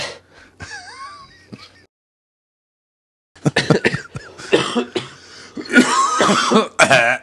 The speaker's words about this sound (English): was like three hours of recording. I'm sure the coughing was at least half hour.